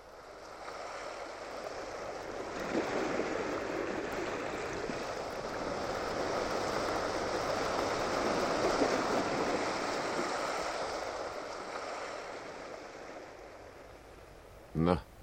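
Sea waves wash steadily onto the shore in a continuous broad rush that swells gently toward the middle, with a brief sharp knock near the very end.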